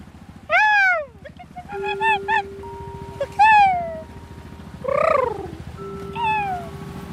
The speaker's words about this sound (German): Okay, seagulls following us.